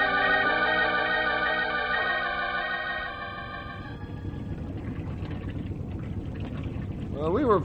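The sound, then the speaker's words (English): A motorboat engine drones steadily with a strong, even hum, then gives way to rougher churning and rushing water noise as the boat keeps running. “fortunate to find this boat at such a reasonable price.”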